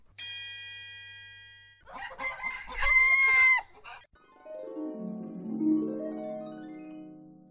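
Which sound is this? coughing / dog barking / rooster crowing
rooster crowing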